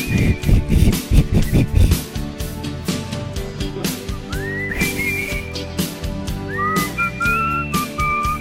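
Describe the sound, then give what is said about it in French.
Someone whistles a sliding, wavering melody over loud backing music with a steady beat. The whistled notes rise and hold in short phrases, clearly audible above the instruments. “essaye de siffler.”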